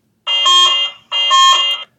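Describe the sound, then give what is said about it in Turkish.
Two loud, harsh buzzer blasts from a soundboard app, each lasting under a second with a short gap between, rich in bright, grating harmonics like a game-show wrong-answer buzzer. No one speaks. “Ee, e, bu butonu içinde bulduğumuz bir uygulama var application.”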